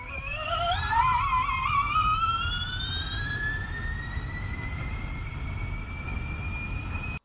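A Formula E electric race car accelerates with a high, steadily rising electric whine that climbs in pitch and then holds, over a constant rumble of road and wind noise, loud.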